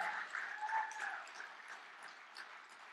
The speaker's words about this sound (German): Ich möchte euch sagen als Gemeinde, dass ihr so reich beschenkt seid durch so großartige Leiter. Und lasst uns ihnen einen Applaus geben und ich ehre euch und ich schätze euch.